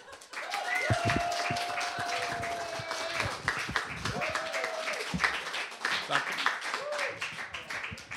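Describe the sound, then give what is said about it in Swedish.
An audience breaks into steady, dense applause at the end of a song, holding for several seconds, with a few sustained whistles or cheering voices rising over the clapping. “Var beredd att applådera, för nu är visan slut.”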